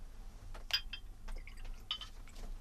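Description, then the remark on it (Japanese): A drink is poured, rather full, into a glass for a Christmas toast: a soft, bubbly trickle of liquid broken by a few bright, high glassy clinks and ringing tones, fairly quiet, with no one speaking. “お、おととと結構いっぱい入れちゃったわ。”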